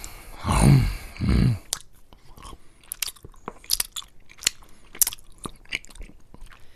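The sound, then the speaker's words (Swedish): Loud chewing of candy: two heavy crunching bites at the start, followed by a stretch of wet, sticky chomping and smacking clicks with no talking. “Jo, här snaskas det.”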